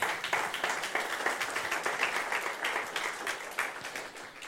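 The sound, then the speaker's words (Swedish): A church audience claps steadily for several seconds, a dense wash of many hands with no pauses, evenly loud, tapering slightly at the end. “Ja, ni kan ju ge dem en applåd tycker jag.”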